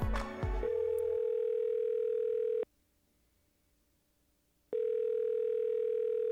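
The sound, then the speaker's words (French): A brief clatter, then the steady electronic ringback tone of an outgoing phone call to a friend: a long, clear ring, a pause of silence, then a second ring starting, heard alone over the line. “je lui ai donné un coup de téléphone pour jaser un peu de son gig.”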